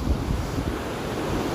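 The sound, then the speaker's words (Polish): Rough sea waves surge and crash continuously, a loud, dense wash of water roaring with heavy low-end rumble and gusty wind buffeting the microphone, on a 20-degree day, no voices present. “Słyszycie wzburzone fale na pewno w tle mocno jest 20 stopni, ale fale te wzburzone”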